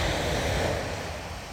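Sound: ocean waves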